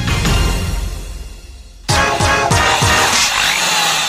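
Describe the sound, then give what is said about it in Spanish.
A loud power tool whines and roars, its motor dipping, then surging sharply about halfway through with several quick revs before settling into a steady, gritty buzz. “Todas las herramientas eléctricas, taladros y pulidoras profesionales e industriales las encuentran en Arquiconstructor”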